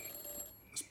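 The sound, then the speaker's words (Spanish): An office telephone rings faintly, a thin, steady electronic trill lasting under a second, with no voices present. “¿Eso es el teléfono de mi despacho?”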